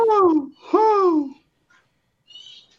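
Two loud, harsh squawks from pet birds in quick succession, followed after a pause by a faint, high chirping call. No one speaks.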